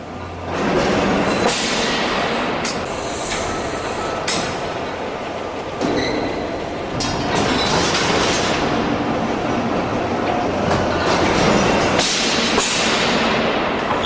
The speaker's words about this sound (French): L'ambiance que vous entendez là, c'est celle d'une machine à vapeur et pas n'importe quelle machine à vapeur. C'est celle sur laquelle a travaillé euh, James Watt au début de la révolution industrielle.